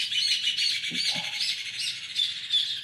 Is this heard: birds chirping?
yes